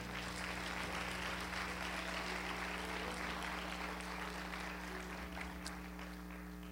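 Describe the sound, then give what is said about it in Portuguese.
An audience at a Portuguese-language church service applauds to the Lord, a dense wash of many hands clapping together over a low, constant hum, sustained at an even level without any voices standing out. “Aplauda ao Senhor.”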